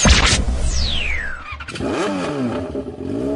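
A motorcycle engine revs loudly, its pitch climbing and dipping in a couple of throttle bursts after a brief whooshing sweep, with no voices.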